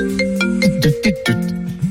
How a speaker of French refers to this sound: Alors dès que vous entendez cette sonnerie, ça